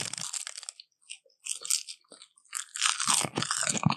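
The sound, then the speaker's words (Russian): Dry crunching of brittle sheets of dried sushi seaweed, in several bursts separated by short pauses, with the loudest and densest crackling near the end. “Это водоросли для суши.”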